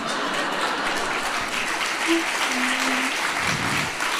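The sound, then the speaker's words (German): An audience claps steadily throughout, a dense, even wash of many hands at a fairly loud level, with a brief voice or hum surfacing faintly in the middle. “Ey, noch klatscht ihr.”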